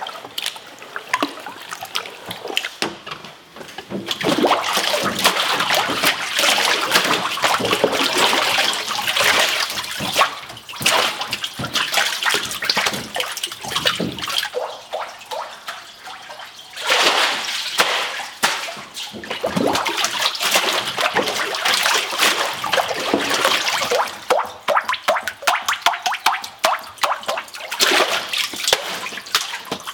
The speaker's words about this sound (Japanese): 今朝は和紙を作る伝統的な紙すきのいい音色それではお聴きください。